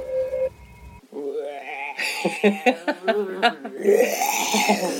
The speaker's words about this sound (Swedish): Ja, spöket äter så mycket så spöket bara rapar.